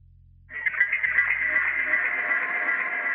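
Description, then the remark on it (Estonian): After a brief silence, a shrill, piercing screech bursts in and holds steady to the end, a loud, strained, wavering high tone like some strange instrument wailing. “kilekarje lõi nagu kirves tüübile pähe silmapilguga segunes sellesse tuli ja kriiskav hääl. mürinal vajus pilli hääl bassidesse.”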